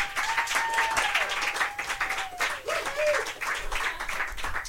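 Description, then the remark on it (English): A crowd applauds comedian Andy Haynes steadily for several seconds, dense clapping at a fairly loud level, with a few faint whistles or whoops rising above it. “Andy Haynes, everybody, clap for Andy.”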